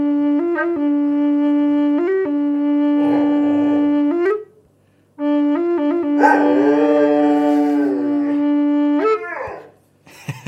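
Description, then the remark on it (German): A steady, droning tone with rich overtones from a wooden instrument built of two half-shells plays, pauses briefly, then resumes while a dog, reacting to the vibrations, joins in with a wavering, drawn-out howl riding over the sustained note. “Ja, das Lustige ist, der Hund, der reagiert sofort auf die, auf die Schwingungen.”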